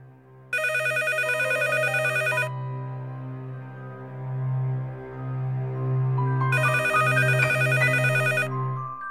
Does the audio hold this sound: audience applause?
no